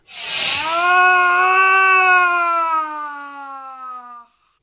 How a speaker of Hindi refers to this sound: ये चीख कैसी इसका मतलब खेल खत्म